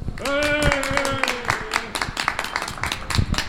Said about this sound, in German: Und ich beende das hier mit einem hoffentlich tosenden Applaus, den es jetzt gibt von den ganzen Leuten.